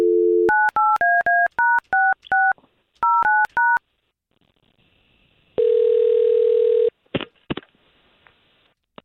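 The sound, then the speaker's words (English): A short tone, then a quick run of touch-tone keypad beeps in two bursts as a telephone call is dialed. After a pause, one loud buzzing ring sounds, followed by a couple of line clicks. No talking. “Okay, we're gonna give her a call right now.”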